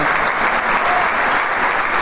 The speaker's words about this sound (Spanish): el aplauso es la descripción más grande que puedo darle a usted y que el público le atribuye a la labor de estos grandes músicos. gran ejecución de este concierto para clarinete, viola y orquesta en mi menor, opus 88.